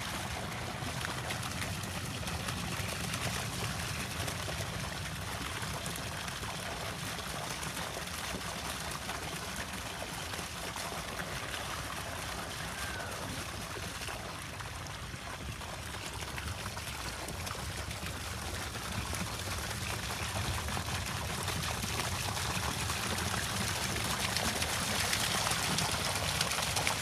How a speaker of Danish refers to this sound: Skal du starte tiden, så er det, når vandet kommer ud herhenne.